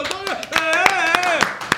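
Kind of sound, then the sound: crowd, applause clapping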